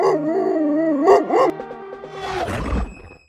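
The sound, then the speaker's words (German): A dog howls and snarls in long, wavering tones, then breaks into a harsh, growling bark that fades out, sounding threatening with no talking. “stelle ich mir zwar eher so einen ganz lieben, treuherzigen Hund vor, aber so wie das jetzt gerade tönt, da bekomme ich doch ein bisschen Angst”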